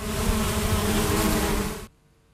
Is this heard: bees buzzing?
yes